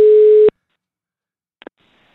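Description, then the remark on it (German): A steady, mid-pitched telephone line tone sounds once for about half a second as a call is placed, then cuts to silence, followed by a couple of brief, quieter clicks. No one speaks. “Den werden wir jetzt mal anrufen, damit wir hier wieder schön zu zweit sind.”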